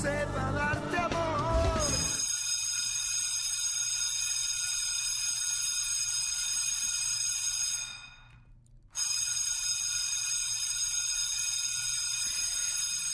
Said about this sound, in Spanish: Bueno, ¿qué recuerdos a la mente les vienen cuando escuchan la campana o la chicharra de la, de la secundaria o de la prepa, no?